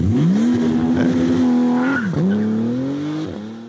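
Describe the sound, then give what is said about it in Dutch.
A Porsche 911 twin-turbo engine revs loudly and steadily, its droning pitch climbing, dipping sharply twice as if shifting gears, then rising again. No one speaks. “En hoor die twee turbo's zingen.”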